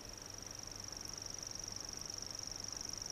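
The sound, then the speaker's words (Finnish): A grasshopper warbler reels continuously, a thin, high, insect-like trill pulsing rapidly and steadily throughout over faint low background hum. “Kun lintu lopettaa sirinen, kannattaa itsekin pysähtyä, ja kun lintu taas aloittaa laulun, voi varovasti edetä.”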